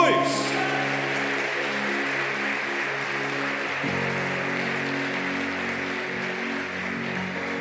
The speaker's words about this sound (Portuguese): Se você recebe, aplauda o Todo-Poderoso em o nome de Jesus.